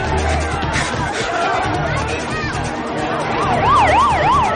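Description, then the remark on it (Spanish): An ambulance siren wails through busy street noise as the ambulance passes by, its rising and falling tone growing louder and clearer toward the end, with indistinct voices chattering in the background. “Ve pasar una ambulancia y como el policía y los agentes cruzan una iglesia.”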